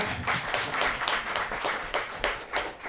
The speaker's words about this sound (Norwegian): Veldig bra at en gruppe medlemmer der begynte å klappe over det. Bra partilojalitet.